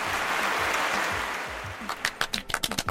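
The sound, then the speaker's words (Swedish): A crowd applauds, used as a sound effect: a dense wash of clapping that thins toward the end into distinct, sharper individual claps, fairly loud, with no voices. “Kan vi lägga in sådana applåder då som ljud?”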